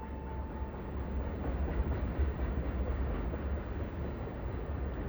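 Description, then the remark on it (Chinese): A moving train rumbles steadily on its rails, a dense low roar with a faint hum, continuous and even in loudness throughout, with no voices. “猛然，被行驶中列车的震动惊醒。”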